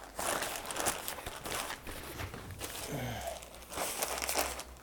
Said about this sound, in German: Ah, Müllsäcke.